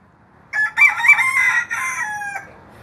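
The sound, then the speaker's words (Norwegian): A rooster crows once, loud, a drawn-out harmonic call of about two seconds that rises, wavers and trails off, with no talking around it, one of the chickens kept in the backyard of Tiller nursing home in Trondheim, Norway, where it crows every morning. “Blir man vekt slik hver morgen? Ja. Det er sånn gauling hver morgen.”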